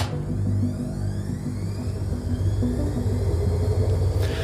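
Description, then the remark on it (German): A helicopter drones overhead, a steady low rumble with a faint rhythmic throb that holds evenly for several seconds, with no voices. “Ich höre hier Helikopter.”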